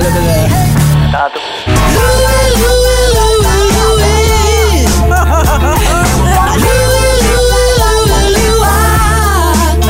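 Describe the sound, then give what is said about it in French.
A loud, full music track with a steady bass line and a sustained melodic lead rising and falling, playing alone with a brief dropout near the start before continuing energetically. It is the entrance music for Louis Robitaille, GM and coach of the Olympiques de Gatineau, arriving on stage at the team's 50th anniversary gala. “c'est sur cette tune-là qu'il a fait son arrivée sur la scène au gala du 50e anniversaire des Olympiques de Gatineau.”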